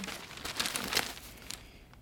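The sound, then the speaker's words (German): Crisp paper rustling and crinkling as a newspaper is handed over, in a short flurry of dry crackles that peak midway and then fade out. No one speaks. “Und die sind gleich rausgekommen mit äh, geheime Papiere bei Einbruch in Journalistenwohnung gestohlen. Auf der Titelseite.”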